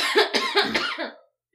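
A short fit of close, fairly loud coughing, three or four harsh bursts in quick succession over about a second, then silence.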